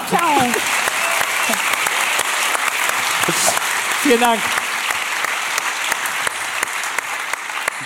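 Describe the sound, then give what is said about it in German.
An audience applauds steadily for the whole stretch, a dense, even wash of clapping. A man briefly speaks over it at the start and again midway. “Jetzt weiß ich übrigens endlich mal, warum bei der Oscarverleihung die Nominierten immer selber klatschen.”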